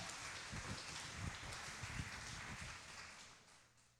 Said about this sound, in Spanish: Regalémosle un fuerte aplauso a nuestro Dios Todopoderoso que nos ha alimentado con la palabra.